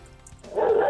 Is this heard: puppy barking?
yes